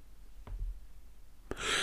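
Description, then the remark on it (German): A soft hiccup-like catch, then a sharper hiccup that opens into a breathy, drawn-out yawn. Quiet, with no talking. “Irgendwie gähnen und hicksen und äh.”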